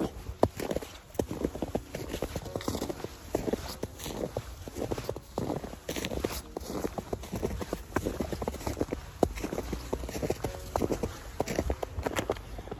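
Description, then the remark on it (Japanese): Steady crunching footsteps through snow in a park, a quick regular rhythm of fairly loud steps continuing throughout with no talking. “久しぶりの公園ですねここはね、はい、雪がいっぱいきれいに残ってるんで雪を歩こうとお楽しみください”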